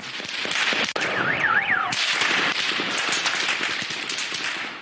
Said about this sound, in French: L'homme à terre est évacué sous les balles qui continuent de siffler. Difficile de savoir qui tire, mais les affrontements se sont poursuivis toute la nuit.